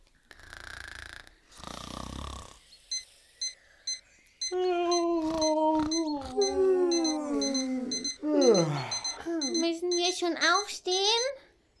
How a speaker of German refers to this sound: Jedenfalls hat mein Wecker gerade geklingelt. Aber wo hab ich den denn nur? Der ist bestimmt irgendwo in meinem Rucksack. Ah, ich, ich glaube, der ist ganz unten oder so. Boah, könnt ihr mal den Wecker ausmachen?